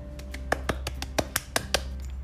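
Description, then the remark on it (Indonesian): Roughly eight sharp hand claps in a quick, slightly uneven rhythm, fairly crisp and moderate in loudness, over a steady low hum with no talking. “Tepuk tangan dulu buat semuanya.”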